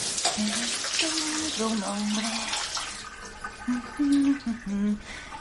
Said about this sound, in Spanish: Luego se da una ducha.